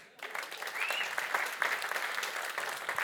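An audience claps steadily, a dense, sustained burst of applause that starts abruptly and holds at an even, fairly loud level throughout, with scattered sharper claps standing out.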